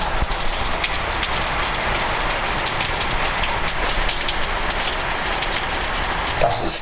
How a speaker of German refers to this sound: So. Lassen wir es regnen. Es ist irgendwie schön.